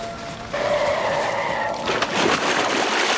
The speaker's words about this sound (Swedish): Eh, men han hoppar i vattnet och det är en sån jävla screech-ljudeffekt.